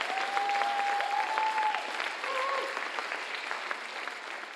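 A crowd claps steadily in sustained, dense applause given as an offering to God during a sermon, fairly loud throughout, with a few faint tonal whistles or cheers rising above the clapping.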